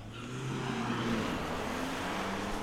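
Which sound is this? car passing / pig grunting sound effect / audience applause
car passing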